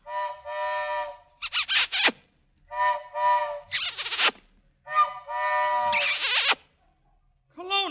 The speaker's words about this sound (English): what kind of a train whistle is that? it's the friendship train.